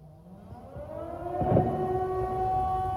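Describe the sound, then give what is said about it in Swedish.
Wailing air raid warning sirens in Paris rise and hold a steady, droning tone, with a louder thud or burst partway through against a rumbling city background. “Eh, och eh, för första gången sedan andra världskriget så ljuder de här varnings air raid eh, mm. sirenerna i Paris.”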